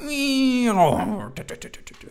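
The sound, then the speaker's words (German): A voice imitates the siren of a dive-bomber going into a dive, holding a steady, loud wailing tone before it drops sharply in pitch, followed by a few brief clicks and murmurs. “Sobald du diese Dinger hörst, gehst du ja runter in Deckung und äh, rennst um dein Leben, wenn du, wenn du diese Sirene ja, hörst. Ne? Und deswegen, da ja auch, dadurch, dass das Ding ja in den, in den Sturzflug geht, hast du halt dieses”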